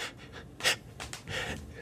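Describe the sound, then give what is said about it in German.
A voice imitates someone gasping and struggling for air on walking into a perfume shop, with a run of quick, ragged breaths and one sharper intake in the middle, with no speech. “Ich kann zum Beispiel fast nicht schnaufen in einer Parfümerie. Mm. Wenn ich dort reingehe, mache ich so,”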